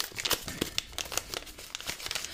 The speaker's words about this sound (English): They never make this much noise in TV with the envelopes.